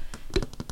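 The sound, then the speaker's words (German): A quick run of about seven fingernail taps on a hard surface, crisp, evenly paced in a light rhythmic patter with no talking. “Das macht immer so ein tolles Gefühl und es hört sich so”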